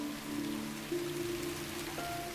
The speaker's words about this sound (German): Und da kommt schon die nächste in Form einer Regenwolke die sich über die Pflanzen erhebt und sie mit frischem Regenwasser versorgt.